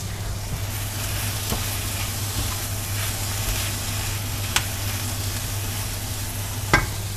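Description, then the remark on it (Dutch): Food sizzles steadily in a pan under a low constant hum, with a few sharp scraping clicks of a utensil stirring, the loudest near the end. No one speaks. “Ik ga even roeren.”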